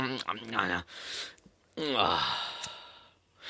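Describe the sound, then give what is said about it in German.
A man imitates the groaning sigh a father makes when sitting down, twice, each a voiced, drawn-out exhale falling in pitch, fairly loud with a brief pause between them, the second longer and breathier. “Nein, jetzt kommt die, du kriegst die Vatergeräusche jetzt langsam. Und beim Hinsetzen immer so machen.”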